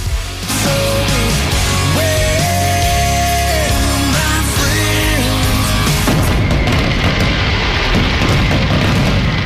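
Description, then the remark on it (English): A loud, continuous barrage of fireworks explosion sound effects: deep booming rumble with whistling tones over it, then denser crackling bursts toward the end. No voices. “And uh, we're hoping Statman doesn't lose an appendage this time when he uh, no sets promises. off the fireworks.”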